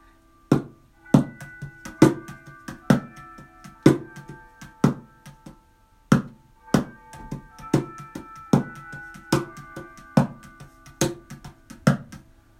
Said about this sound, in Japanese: はい、今ちょっと無理やりあのチャイムと一緒にセッションしようと思ったけど、あのちょっとうまくいかなかったですね。